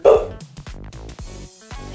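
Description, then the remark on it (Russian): A dog barks several times in quick succession, loud, the first bark strongest and the rest following in a choppy, uneven rhythm with no talking. “Собакой тебе тоже привет передают.”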